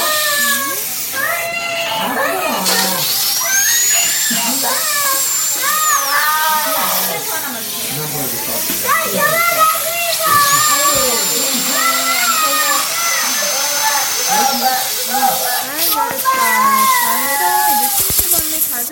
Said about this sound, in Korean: 생각을 여는 소리 사운드 오브 데이. 구강 보건의 날을 맞아 치과에서 치료하는 소리 들려드렸습니다. 어우, 저도 끔찍하네요. 이 어린이의 심정에 공감하는 어른들 많을 것 같습니다.